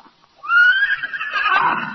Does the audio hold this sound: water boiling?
no